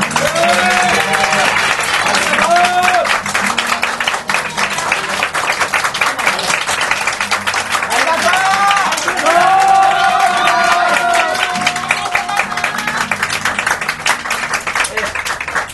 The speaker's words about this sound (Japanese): そして何よりも、えー、素晴らしい、えー、お食事とお酒を提供してくださった大吉に心からの感謝を、ね、皆さんに拍手をいただきます。